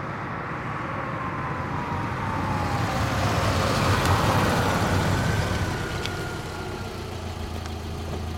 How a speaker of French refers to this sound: Je ne rêve pas, c'est bien une voiture thermique qui se trouve à côté de moi, au feu rouge.